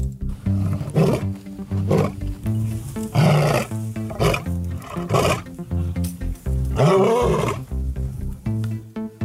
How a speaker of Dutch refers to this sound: In het kattenrijk zijn er namelijk twee soorten katten. De grote katten, zoals de tijger, de jaguar en de leeuw, en die brullen.